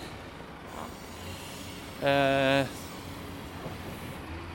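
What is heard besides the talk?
trucks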